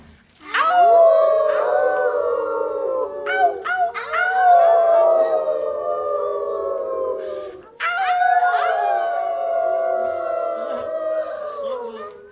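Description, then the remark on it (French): Several people howl together like wolves in long, wavering rising and falling cries, one sustained chorus followed by a brief break and a second loud group howl. “Donc si vous voulez bien m'aider à faire venir les raconteuses d'histoire, il faut qu'on hurle comme si on était des loups.”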